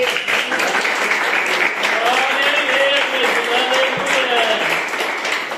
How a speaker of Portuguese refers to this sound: Pode aplaudir a Jesus nessa noite.